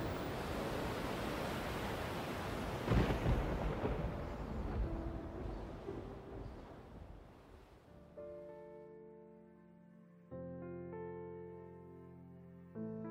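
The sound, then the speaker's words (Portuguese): A steady, dense hiss of falling rain fills the first several seconds, then thins out as soft, sustained musical tones take over. No one speaks. “Voltei a dormir ao som de chuva caindo.”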